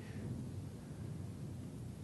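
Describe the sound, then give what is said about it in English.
A low, steady rumble of thunder rolls on without a break, deep and muffled, with no voices over it. “I got to come up with a good metaphor for thunder.”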